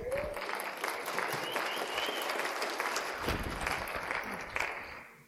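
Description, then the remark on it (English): An audience claps steadily for several seconds, a dense, continuous wash of many hands applauding at moderate volume, with no one speaking over it. “Come on, give Carrie a round of applause.”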